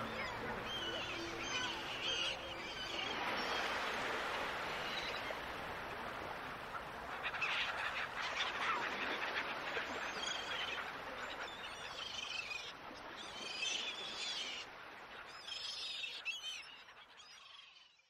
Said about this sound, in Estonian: rannas laksusid lained merele, kiljusid kajakad tuultele tema nime.